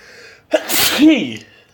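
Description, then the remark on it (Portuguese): A single loud sneeze: a sharp intake followed by a bursting, breathy explosion that trails off into a short voiced tail, heard on its own. “Odeio não espirrar, cara.”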